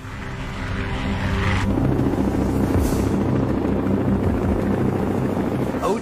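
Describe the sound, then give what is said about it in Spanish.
A Black Hawk helicopter's rotors thrum loudly and steadily for the whole stretch, a dense, low, pulsing drone with a whooshing, engine-like roar layered on top, unbroken. “Intentó enviar dos helicópteros Black Hawk en varias ocasiones por el paso de Anjuman hacia el valle.”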